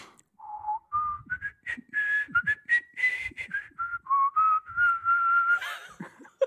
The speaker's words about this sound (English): I wish I recognized that. I'm sure it's funny. no, it's Peter and the Wolf. It doesn't matter what it is. He's just whistling.